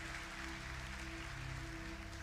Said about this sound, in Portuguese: Quer aplaudir? Pode aplaudir, porque o novo coração se desenvolve todos os dias.